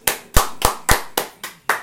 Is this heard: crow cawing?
no